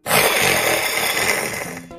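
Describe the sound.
An eight-year-old child from Emden, Germany, roars like a T-Rex, one long, loud, raspy growl held for nearly two seconds before trailing off, with harsh noisy texture and no words.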